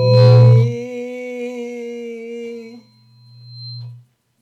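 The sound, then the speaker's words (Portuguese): Microphone feedback during a live broadcast: a loud squeal rings as steady, sustained tones for about four seconds, with a high whine fading out near the end and a low hum beneath. No one speaks. “Tô com microfonia aqui.”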